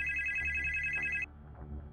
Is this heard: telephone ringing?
yes